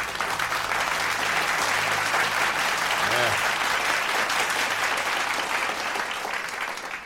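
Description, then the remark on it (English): Steady applause from a crowd fills the whole stretch, dense and loud with rapid overlapping claps, thinning only slightly at the very end. “And I know the importance of a black woman and what they go through so absolutely, I'm gonna clap that up for black women.”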